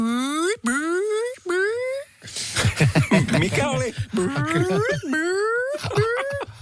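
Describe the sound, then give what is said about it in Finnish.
A person's voice imitates a metro train, with repeated rising whines like a motor accelerating, broken by a burst of rougher noise and laughter-like sounds, fairly loud, with brief speech. “Suomen kuuluisin metroimitaattori!”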